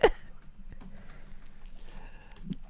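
Rapid clicking of keys on a computer keyboard, a steady run of soft taps with no voices, ending in a slightly louder thump.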